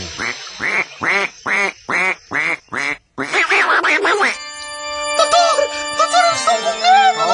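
A quick run of about eight evenly spaced, loud duck quacks, then a brief jumble of louder quacking giving way to sustained, ringing electronic tones.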